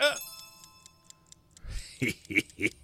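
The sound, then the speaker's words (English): A clock chime rings out once, loud, as the hour strikes thirteen o'clock, and fades into soft, steady ticking, followed by a few short vocal sounds near the end. “I'm looking at my watch right now. Yeah. And it's about to hit 13 o'clock.”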